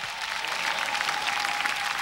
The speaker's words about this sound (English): Let's put our hands together for Jesus Christ.